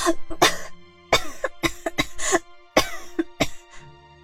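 Violent, harsh coughing from a sick person with a fever, in rapid fits, about a dozen loud rasping bursts over several seconds with brief gasping pauses between them, and no talking.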